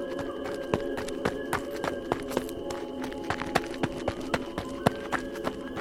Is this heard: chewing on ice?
no